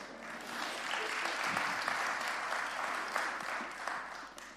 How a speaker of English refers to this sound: Oh, it's a round of applause. Yes, come on.